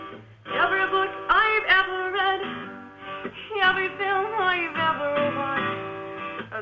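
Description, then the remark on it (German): Instrumental music plays steadily throughout, with sustained tones and gliding, shifting melodic lines at a moderate, even volume and no voices. “Ja, kannst du nochmal die Musik ein bisschen lauter machen”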